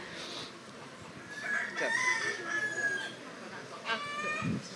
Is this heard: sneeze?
no